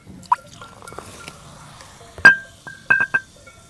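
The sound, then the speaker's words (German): Tonic water pours into a glass, with a soft fizzy trickle, small drips and several bright glassy clinks, the loudest near the end. “Tonic. Oh, Tonic sogar.”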